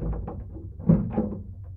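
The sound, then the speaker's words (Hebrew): A key works the lock of a closed door and the door swings open, heard as a few dull clunks and a low thud, with no talking. “אבל הדלת סגורה. אני חושבת שיש לי פטנט. אלוהים גדול, אולי המפתח שלי דומה לשלכם.”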